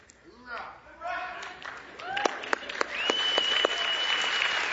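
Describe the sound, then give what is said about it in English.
A crowd including members of the United States Marine Corps bellows an oorah cry together as a greeting, then breaks into scattered clapping and cheers, with a long, piercing whistle ringing out over the noise near the end. “If we do, I want you to identify one another and greet one another with an oorah.”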